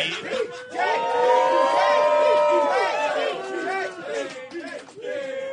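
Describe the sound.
A large audience at a live show, voting by applause for which act should be champion, erupts in loud, sustained cheering and whooping, many voices yelling at once over clapping, holding strong for several seconds before dipping slightly near the end.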